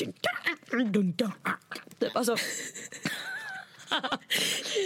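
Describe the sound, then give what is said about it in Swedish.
A voice imitates a techno beat with rapid, rhythmic mouth sounds: clicks, bursts and buzzing pulses, loud, with brief bits of speech mixed in. “jättebra alltså, jättebra imitation av Teknos.”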